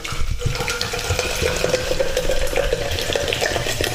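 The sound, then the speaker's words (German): Steady fizzing and bubbling of carbonated water from a freshly opened bottle, fairly loud, a continuous hiss with small crackling pops throughout. “ihr hört das, Wasser mit Kohlensäure.”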